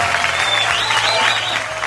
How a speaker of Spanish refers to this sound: Le damos un aplauso. Gracias, gracias. Y todo el público te aplaude hoy.